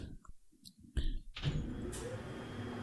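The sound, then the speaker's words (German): A couple of soft mechanical knocks, then a steady electric whirring hum sets in and continues evenly as an elevator motor runs while the car travels down. No one speaks. “Wir fahren wieder Alter, mit dem Fahrstuhl runter.”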